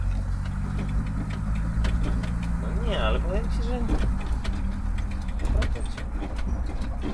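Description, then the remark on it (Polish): A Multicar utility truck's suspension rattles and clunks with irregular knocks over a steady engine drone while driving, and people talk over the noise; the truck has four trailing-arm wishbones with leaf springs that work constantly. “No, słychać całe zawieszenie, to, to, to przyznam.”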